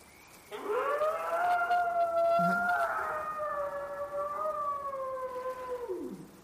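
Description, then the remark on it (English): A long, eerie howling cry rises quickly and holds for several seconds, wavering slightly in pitch before sliding down and fading out, loud and alone over a faint background hiss. “It's because they inserted the Bigfoot cries into the recording.”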